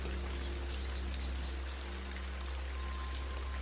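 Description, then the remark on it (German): Steady rain falling, with countless drops pattering on a surface in a dense, even hiss, fairly soft, with no voices. “Kein Regentropfen ist wie ein anderer.”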